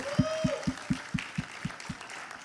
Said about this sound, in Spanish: Yo no sé si usted le puede dar un aplauso al Señor, pero el Señor está aquí. Dale un fuerte aplauso.